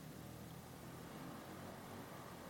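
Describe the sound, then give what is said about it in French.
A motorcycle engine drones faintly and steadily, a low rumble that carries on without voices over it. “Là, on l'entend encore.”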